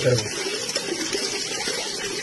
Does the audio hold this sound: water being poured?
yes